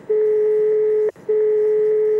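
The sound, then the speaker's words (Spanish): A steady electronic telephone call tone sounds in two long, loud beeps of about a second each, separated by a brief gap, with no voices. “Hablo de este tono de llamada.”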